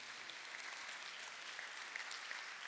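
An audience applauds in a steady, dense wash of clapping that holds at an even level throughout, moderately distant, with no voices standing out.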